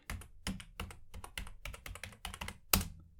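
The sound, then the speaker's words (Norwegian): Rapid, irregular clacking of keys on a computer keyboard as someone types a Google search, fairly loud, with one sharper, heavier key strike near the end. No voices. “Nå skal dere høre tastaturet mitt.”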